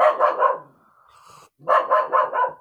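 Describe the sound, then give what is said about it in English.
A dog barks in two quick bursts of three or four sharp, loud barks each, separated by a brief quieter pause with a faint whine, with no talking. “Barking.”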